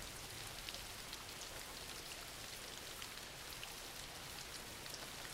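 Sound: rain falling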